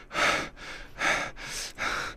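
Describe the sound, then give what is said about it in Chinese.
A man, a voice actor giving a demonstration, imitates heavy, tired panting as if exhausted after exercise, with four or five loud breathy huffs in a quick, regular rhythm, each a broad airy rush with no words. “请给我一个真的运动过后好累的喘息声。”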